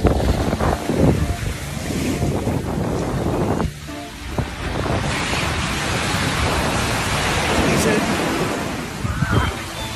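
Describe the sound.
Sea waves wash steadily onto a beach in Chile, where a person bathes in the very cold sea, a continuous roar of surf with gusts of wind rumbling across the microphone and brief voices in the background.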